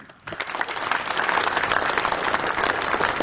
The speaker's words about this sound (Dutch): Dames en heren, uw warm applaus voor Nancy Vermeulen.